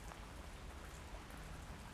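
Steady rain falls without pause, a dense hiss of drops pattering on a surface, fairly soft and even throughout, with no voices or other sounds.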